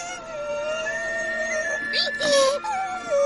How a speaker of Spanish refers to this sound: se abraza a la pierna de Gruñón mientras llora